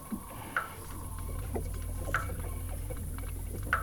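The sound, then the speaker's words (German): Water rushes steadily through an underground sewer channel with a constant low roar, punctuated by three bright, ringing plinks at even intervals and faint scattered drips. “Hört sich an wie ein unterirdischer Kanal.”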